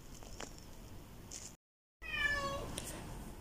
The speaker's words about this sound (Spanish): Ese llanto de gato nos marca que hemos vuelto.